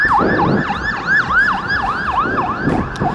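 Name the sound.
passing ambulance siren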